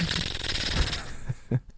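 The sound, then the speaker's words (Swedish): A voice imitates AK-47 automatic rifle fire shot up into the air, with a fast, rattling stream of harsh bursts for about a second, followed by a few slower, separate pops, loud. “Tar en AK47 och bara brassar upp i luften så här.”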